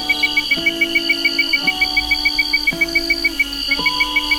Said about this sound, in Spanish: Para los niños, los sonidos de la noche eran músicas en sus oídos. Grillos y ranas se escuchaban en el monte, el ruido de las hojas de los sauces meciéndose con la brisa los hacía adormecer.